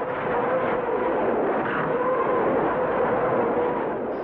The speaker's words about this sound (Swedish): de ser ju lite grann ut som en orgel med de här piperna eller raketerna i luften och framförallt så sjunger den när raketerna sticker iväg. När de viner iväg mot himlen.